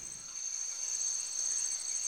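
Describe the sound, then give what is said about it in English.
A dense night chorus of tree frogs in a forest: a steady, high-pitched trilling drone with a fast pulsing shimmer on top, continuous throughout, with no voices. “Night birds, tree frogs.”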